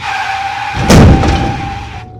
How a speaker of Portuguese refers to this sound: Você pisa no freio por reflexo, os pneus cantam e param.